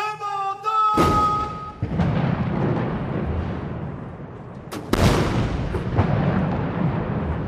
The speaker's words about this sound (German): Ich habe mir nochmal das Video der Parade zum 70. Geburtstag Chinas angeschaut und da sieht man ein Riesenaufgebot auf dem Tiananmen-Platz. Erst schießen Kanonen.